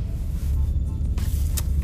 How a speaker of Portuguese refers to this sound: Um busão. Que aqui seria um bom lugar, hein? Mas esse busão, ele estragou a minha.